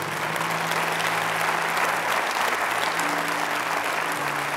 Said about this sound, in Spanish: ¿Cuánto bendicen a Dios? Denle un aplauso al Todopoderoso.